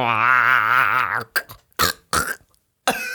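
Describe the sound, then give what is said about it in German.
A voice imitates a frog's dying croak: a long, wobbling, strained groan with heavy vibrato, followed by a few short raspy gasps and sputters, loud with no talking. “Kannst du einmal ganz kurz am Anfang dieses Geräusch machen, das der Frosch macht, bevor er stirbt?”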